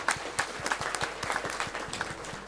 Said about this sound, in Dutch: Maar applaus voor Jos en Chris.